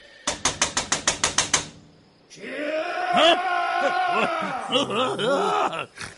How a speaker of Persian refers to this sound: برو در بزن خب، بله بله چشم این چه جور در زدنه محکمتر بزن